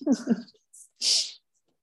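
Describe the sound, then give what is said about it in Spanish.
A brief coughing fit: a rough, voiced hack followed by a short pause, a faint hiss, then one loud, breathy, harsh burst before the sound cuts off. “Ay, ah, que le ha dado un ataque de tos.”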